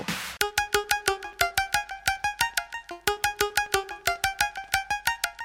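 A synth-pop melody played on a bright electronic tone, with quick staccato notes pulsing in a steady, driving rhythm and shifting pitch. There are no voices, and a brief noisy burst comes first.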